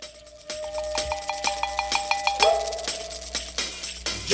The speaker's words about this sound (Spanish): Jungle Music es lo que estamos escuchando de fondo.